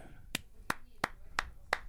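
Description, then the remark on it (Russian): Five sharp hand claps in a steady, evenly spaced rhythm, crisp, with only quiet background between them and no talking. “Апла- аплодировал помидор.”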